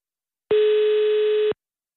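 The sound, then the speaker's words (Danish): A phone ringback tone sounds once while placing a call, a steady electronic hum lasting about a second, loud and clear with silence before and after and no voices. “Åh, oh, det er en god ringetone.”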